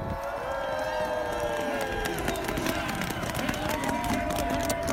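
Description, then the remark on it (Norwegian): A lively crowd of spectators cheers steadily at a ski race in Åre during Henrik Kristoffersen's second run, a dense roar of many voices with rising shouts and whistles, loud and continuous throughout without letup. “Som dere hører, så er det brukbart med liv her.”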